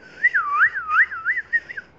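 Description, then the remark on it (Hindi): A person whistles a quick series of warbling, rising-and-falling notes, several short bursts in a row, fairly clear with no talking. “उसने जाके खूब सारी सीटियाँ मारी”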